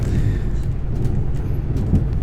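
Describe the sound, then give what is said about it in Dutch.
A steady, low rumble of a moving train rolls on without a break, a soft, continuous drone with faint higher rattles scattered over the deep hum. “Met dit voorspoedige, zachte dreunen van de trein zal ik eens eventjes eh, bij gaan slapen.”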